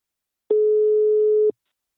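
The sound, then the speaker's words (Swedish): A single steady telephone ringback tone sounds for about one second while a call is placed to the company Invacare, clear and fairly loud, with silence before and after and no voices. “Nu tar vi en kort paus och ringer upp min samarbetspartner Invacare.”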